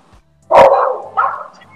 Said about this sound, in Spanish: Alguien tiene mucho perro al lado.